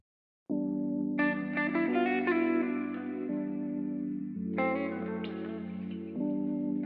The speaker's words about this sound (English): So I've processed the guitar with a series of effects, including some saturation to give it a bit more bite, as well as some delay and reverb to help it float above our original keyboard sample.